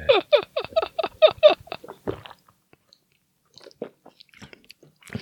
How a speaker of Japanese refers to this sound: ごくごく飲める。